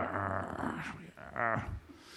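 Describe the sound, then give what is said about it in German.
A person imitates a dog's growl, a rough, throaty rumble drawn out for about two seconds in two swelling pushes, fairly loud, with no other talking. “Wenn sie knurren.”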